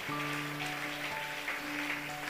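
A church audience claps steadily in a dense, continuous wash of applause given to God as the King of Glory, with a sustained keyboard chord droning underneath throughout.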